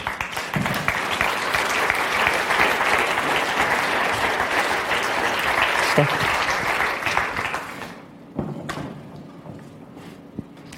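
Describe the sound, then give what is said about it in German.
An audience applauds steadily for about eight seconds as a guest comes up onto the stage, a dense, even patter of clapping that then fades out, followed by a few scattered thumps and quiet voices. “komm doch auf und einen Applaus für dich gerade noch.”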